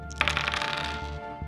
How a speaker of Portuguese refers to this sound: Tá bom, joga. Você entendeu, né? Joga, entendi, joga dois dados.